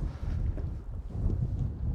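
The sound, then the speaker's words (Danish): Blustery wind buffets the microphone in a steady low rumble at a harbor with very high water, with a constant outdoor harbor wash and no voices. “Og jeg er gået mig varm går nede ved, ved, mit, ved mit vand, ved havnen.”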